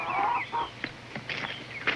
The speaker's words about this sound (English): Andy and Barney and Mr. Darling go out the front door of the cabin, walk past the chickens, heading out towards the woods, looking for Ernest T.